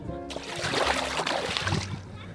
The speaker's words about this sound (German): Ich plätschere kurz mal ins Wasser, damit ihr auch wirklich wisst, dass ich am See bin.